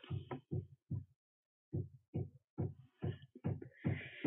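A series of muffled, low thuds, about nine in quick succession with short pauses, tapping from someone hanging up things in his room. No one speaks.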